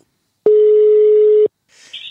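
A single steady telephone ringing tone as a phone call is placed, one clear beep about a second long, loud, followed by a brief faint hiss as the line picks up.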